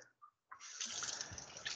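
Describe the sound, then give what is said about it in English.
After a brief near-silent pause, water starts rushing steadily through the pipes of a newly installed electric boiler that is switched on and running: a loud, continuous hissing flow that holds without a break to the end. No one speaks. “Like, is because it on and running? Because you can hear it.”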